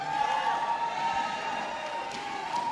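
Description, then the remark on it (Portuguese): A crowd shouts and cheers continuously, a dense, steady roar of many voices with some higher-pitched whoops rising above the din. “vou falar com o pessoal daqui que o pessoal daqui deve ser botafoguense, porque vocês estão gritando bastante assim.”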